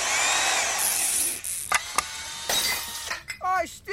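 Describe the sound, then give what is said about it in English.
A power drill whirs loudly for about a second and a half, then cuts out, followed by a few sharp knocks and a brief warbling chirp near the end. “You got a seven millimeter drill bit?”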